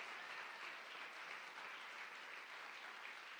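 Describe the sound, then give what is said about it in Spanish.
An audience applauds the King of Glory steadily, a dense, continuous wash of many hands clapping at an even loudness throughout, with no individual claps standing out and no voices breaking through. “No, un fuerte aplauso al Rey de la Gloria.”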